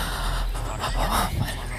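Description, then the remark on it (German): A dog pants in quick, breathy bursts, fairly loud, with a short high whimper rising briefly toward the end over a steady background hiss. “Sie können froh sein, dass Sie nicht den Hund erschossen”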